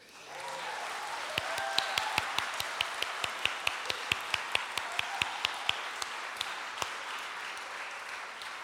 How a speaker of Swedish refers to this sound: Gripande. Kan vi inte ge honom en applåd till?